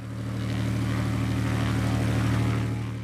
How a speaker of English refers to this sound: At this Forest Service ranger station and airstrip along the famous Middle Fork of the Salmon River, planes drop off gear and raft guides and clients who are about to launch a seven day float.